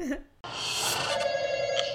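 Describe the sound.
A brief voice gives way to a telephone ringing, a bright, buzzy electronic ring that sounds close and steady for over a second.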